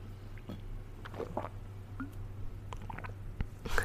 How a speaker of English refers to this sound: get a drink of water, stay hydrated.